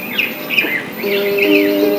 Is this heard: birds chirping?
yes